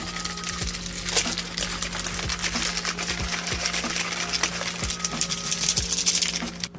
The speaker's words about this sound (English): We got my little mixer here, getting ready to roll. So, all right, we got our packet open. Dump that powder in there. Dump in the water. All right, here we go.